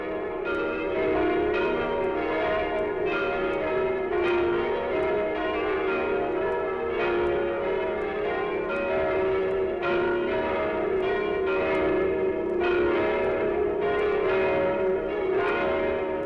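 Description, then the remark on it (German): A peal of church bells from Bethlehem, the place where Jesus was born, rings continuously, with overlapping strikes arriving at an irregular but steady pace and long, rich tones that blend into a dense, resonant wash. No voices are present. “weit und beschwerlich ist der Weg gewesen, den das Geläute von Bethlehem zu uns genommen hat.”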